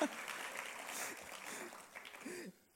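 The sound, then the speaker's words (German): A crowd claps steadily for the speaker's wife as she stands up, a dense, noisy wash of applause with a few faint voices mixed in, before the clapping cuts off near the end. “Gebt ihr einen herzlichen Applaus”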